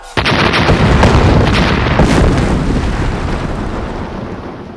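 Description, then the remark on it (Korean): A sudden, loud blast of gunpowder sacks, set on fire inside a besieged fortress, erupts into a roaring, crackling rumble full of bursting debris as the roof is blown into the sky, then slowly fades over a few seconds. No one speaks. “화약이 폭발하면서 지붕이 하늘로 날아가고 평안병마사 남이흥과 안주 목사 김준 부자를 비롯하여 여러 장수들이 불에 타 죽었다.”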